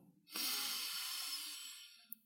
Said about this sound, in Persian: حالا بیایید هوای توی ششا رو کمی به رنگ نارنجی روشن تصور کنی چون اکسیژنش دیگه گرفته شده و با بازدممون قرار از ریه هامون این هوای نارنجی روشن رو خارج کنیم. آهسته هوای نارنجی روشن رو با هم فوت میکنیم بیرون.